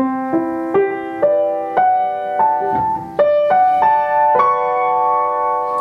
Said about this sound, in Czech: To znamená, když na sebe budeme dávat velkou a malou terci, tak uděláme akord, který nemá konec. Takže mm-hmm. když ti zahraju, jak to zní, tak to zní takhle.